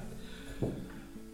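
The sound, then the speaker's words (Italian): A single short, muffled sneeze bursts out once, briefly and fairly softly, over a faint steady hum with no talking. “Salute.”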